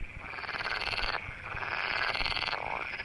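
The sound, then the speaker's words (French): A green frog calls in a rapid, rattling series of croaks that rise and fall like mocking laughter, steady, with a buzzy, pulsing texture and no voices. “Ça fait un peu comme un rire et puis ça peut faire un coassement ou un grésillement.”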